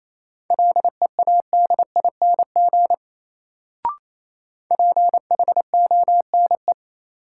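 Rapid Morse code beeps in a steady mid-pitched tone, keyed at about 28 words per minute as a practice drill of common words, in two quick bursts separated by a pause with a single soft click between them.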